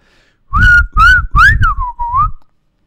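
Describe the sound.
A person whistles an imitation of a pied flycatcher's song: a loud run of five short notes, the first three separate and the last ones gliding downward, with no talking.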